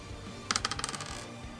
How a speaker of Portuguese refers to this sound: Rola um D20 cada um. 15. 8.